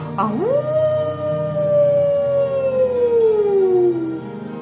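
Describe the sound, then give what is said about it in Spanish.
A single long wolf howl sweeps quickly upward, then holds and slowly sinks in pitch for several seconds, loud with no talking. “hace ese lobo? En la noche viene a asustar a los niños. Aparta la cortina y grita.”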